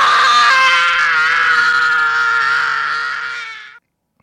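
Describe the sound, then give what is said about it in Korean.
A child's loud, sustained scream, high and strained, holding steady for nearly four seconds before cutting off abruptly into silence; a boy screaming after slapping aftershave on his cheeks, in a scene from the film Home Alone. “아, 아, 이거 저기 스킨 바르는 장면? 네, 뺨에다 치면서 아, good shape.”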